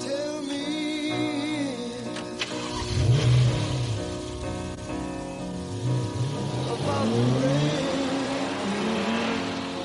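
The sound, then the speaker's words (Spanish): A car engine revs hard and accelerates, its pitch climbing and dipping in loud sweeps that fill the whole stretch without pause. “Puedo llevarte al aeropuerto. ¿Por qué no? En mi coche robado, claro.”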